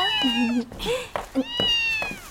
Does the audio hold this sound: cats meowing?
yes